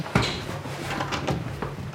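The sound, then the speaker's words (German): A woman opens the door of an office in a grey prefab block in Warsaw, Poland, a sharp click followed by a few soft knocks and rattles over a low steady hum, with no one speaking. “Sekunden später öffnet eine Frau die Tür.”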